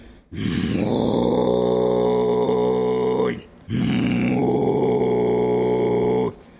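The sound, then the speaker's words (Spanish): Kargyraa throat singing: two long, deep growling notes, each held about three seconds with a short breath between, a rough rumbling undertone carrying a faint whistly overtone above it. “Está el Kargira, que es el.”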